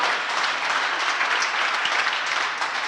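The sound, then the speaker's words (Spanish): An audience at a Christmas gathering claps steadily for a few seconds to ease a speaker's nerves, a dense, even wash of many hands with no voices breaking through, holding at a consistent loudness throughout. “Eh, y pues Estoy muy emocionado y si me ganan los nervios me pueden aplaudir para que se me quiten y ya para que entremos todos en calor.”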